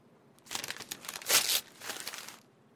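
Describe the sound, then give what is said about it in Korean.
Paper rustles and tears in a few short bursts, like envelopes being ripped open, with a sharper crinkling rip in the middle and a softer one after it, as the morning's mail is opened at an office desk. “다음날 오전 10시에 스페이드가 사무실에 도착했을 때 에피페리는 책상에서 오전에 들어온 우편물을 열어보는 중이었다.”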